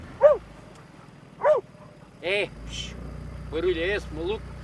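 A dog, Flescher, standing in the bow of a boat in the Ria Formosa lagoon in southern Portugal, barks at herons and storks several times in short, irregular bursts, fairly loud, over a steady low engine rumble like an idling boat motor.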